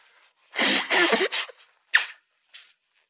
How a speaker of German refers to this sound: Aber was ich dir versprechen kann, ich muss mir jetzt mal die Nase putzen. Warte mal, es wird jetzt schlimm. Okay.